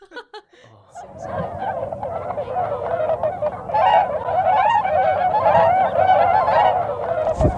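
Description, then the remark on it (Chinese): A dense chorus of honking waterbirds, likely geese, calls continuously and overlapping at a well-known wetland in Tianjin during a birdwatching outing, growing louder after the first second and staying busy throughout, with no one speaking. “约水哥一起去天津的一个呃比较有名的湿地去一一起观鸟”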